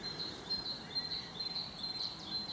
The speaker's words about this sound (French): On a les mésanges euh, charbonnières qu'on entend.